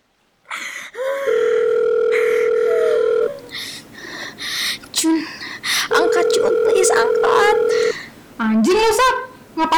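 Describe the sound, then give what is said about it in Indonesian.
A phone's ringing tone sounds in two long steady beeps, each lasting a couple of seconds, with a pause between them. Busy voices and noise chatter over and around the rings. “ngapain sih telepon terus?”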